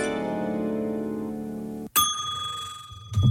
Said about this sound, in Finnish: Täällä tulee viesti, että minä opetin kissani soittamaan tätä soittokelloa ja sitä vastaan saa namin. Virhe. Kello soi pitkin yötä ja se piti piilottaa kaappiin.